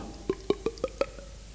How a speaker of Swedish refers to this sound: Så gick profeten till Saul med sitt oljekrus och hällde olja i pannan på Saul.